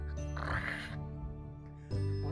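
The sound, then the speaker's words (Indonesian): A creaky, strained groan of a curtain at a door, with a longer creak followed by a second after a brief pause, fairly loud; it may be a voice imitating the creak. “Apa mama nih di depan pintu ada suara krek lapo eh ini korden atau oh, korden korden belum korden”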